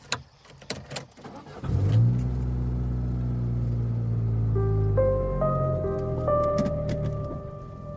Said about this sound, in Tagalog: Sinabit ko nga po ang rosaryong bigay ni Lolo sa rearview mirror ng kotse ko. At agad nang lumarga.